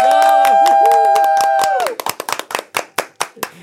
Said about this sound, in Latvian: un es domāju, ka mēs četratā varam tādu, tādas ovācijas Latvijai.